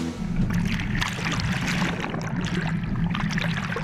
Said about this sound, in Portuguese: A estrada boiadeira está completamente inundada e a água invade os veículos que insistem em terminar o trajeto.